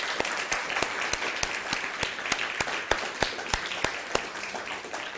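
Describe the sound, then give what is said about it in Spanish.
A crowd at a 25 December gathering applauds steadily, a dense wash of many hands clapping at once, with a few sharper, louder claps standing out at irregular moments throughout. “Nuevamente un aplauso, por favor. Fuerte, fuerte el aplauso.”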